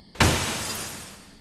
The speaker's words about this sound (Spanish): Corrimos a ver, y era el parabrisas de una de las unidades. Le habían lanzado una piedra haciendo que éste se estrellara.